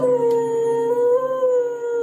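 A female dog howls in one long, sustained, wavering note for about two seconds, fairly loud, alongside steady tonal piano notes as the dog plays the piano and sings. No one speaks.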